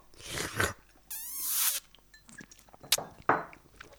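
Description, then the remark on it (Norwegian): Glasses of an Easter drink clinking together in a toast: a few bright knocks and a brief ringing, squeaky tone, with scattered small clatter and no talking. “Først så tar vi en skål. Ja i Påskedrinken.”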